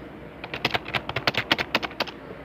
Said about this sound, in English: So don't you hate whenever you you have a really good keyboard, but all you hear whenever you're typing, it's really loud, and you hear,